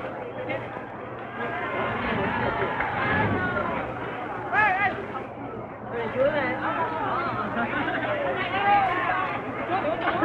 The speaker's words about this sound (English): These are the people, the students, the ordinary people of Saigon cheering the troops, giving them bread, giving them bananas.